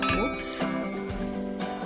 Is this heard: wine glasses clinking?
yes